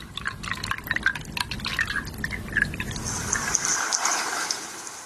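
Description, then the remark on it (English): Water pours steadily into a cup to prepare tea, a continuous splashing and trickling that rises in pitch as the vessel fills, ending in a lighter dribble. “Prepare tea.”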